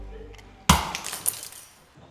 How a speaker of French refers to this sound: et voyant des démons sortir de l'horloge, il la cassa d'un coup de sabot